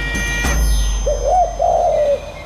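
A pigeon coos in two low, warbling phrases against a steady background hum, after a brief sharp knock at the start. There is no talking.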